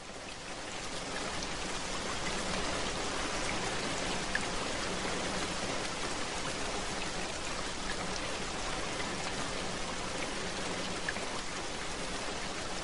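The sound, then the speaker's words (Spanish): Steady rain pours down in a dense, continuous hiss with faint patters of drops, rising in over the first second and then holding evenly throughout, with no voices. “Comenzó a llover y las nubes desaparecieron de su caparazón.”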